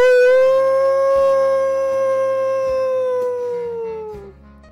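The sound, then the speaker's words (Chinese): One long, steady wolf howl opens the picture-book story 我是最厉害的大野狼 (I Am the Mightiest Big Bad Wolf). It holds a single mid-high pitch, rich in overtones, then sags and fades at the end. Low sustained musical chords shift beneath it. “今天给你们讲的绘本故事的名字叫做《我是最厉害的大野狼》。”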